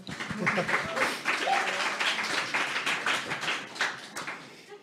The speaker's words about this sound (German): Also einmal einen Applaus an euch. Also ihr dürft euch selber applaudieren.